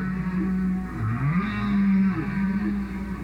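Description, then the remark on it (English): Low, sustained tonal moans glide and bend around a steady pitch, rising and falling in long sweeping phrases over a hissy background, like a whale singing heard through water. “There's not a chance that whales were aware of humans or humans were aware of whales. And yet, they are using the same tricks.”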